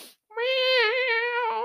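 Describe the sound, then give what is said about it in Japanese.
Nyankichi the cat's voice imitates a steel guitar with a single sustained, nasal, meow-like tone that wavers slightly in pitch for over a second, clear with no other sounds. “だから、あの、スチールギターの音ってちょっと猫の声に似てるなって思って”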